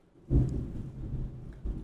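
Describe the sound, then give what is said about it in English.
A deep rumble of thunder rolls in suddenly and lingers, with a steady wash of rain falling outside underneath and a second low surge near the end. No voices. “He's raining outside and they're scared.”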